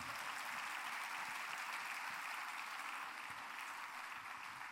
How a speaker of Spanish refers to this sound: Ahora dale un fuerte aplauso al Señor.